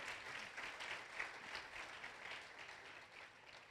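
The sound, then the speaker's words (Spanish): A crowd claps steadily for a few seconds, a dense, even patter of many hands with no voices over it, holding at a fairly constant moderate level throughout. “Que alguien aplaude.”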